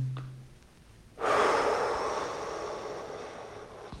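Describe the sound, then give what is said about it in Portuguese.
After a brief quiet moment, a deep breath held during a breathing exercise is released in one long, breathy exhale that starts strongly and slowly fades, with no talking. “E agora solte.”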